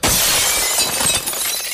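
A sudden loud crash of a stone falling from above and smashing through a car windshield on a motorway, bright and crackling, with a dense burst of shattering glass that sustains and slowly thins out over nearly two seconds, no voices present.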